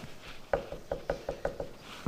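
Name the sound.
gentle knocking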